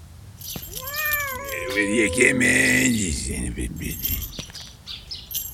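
A cat lets out a long, drawn-out yowling meow that rises and then sinks, loud, followed by fainter scuffling and background noise.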